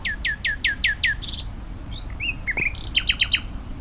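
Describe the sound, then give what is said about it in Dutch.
A common nightingale sings, starting with a rapid series of five or six descending whistled notes, then varied chirps and a quick repeated trill, clear against a faint low background rumble. “Het is een goede zanger, hè, deze?”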